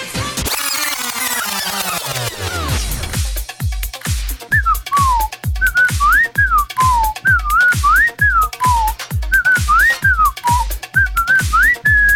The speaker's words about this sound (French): Ah, je fais bien le sifflet.